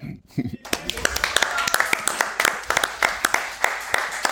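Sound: applause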